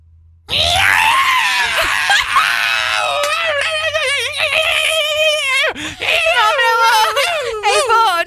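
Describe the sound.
A man's voice imitates a yowling cat in heat, a loud, sustained, wavering wail that bends up and down in pitch, breaking briefly near the end before resuming.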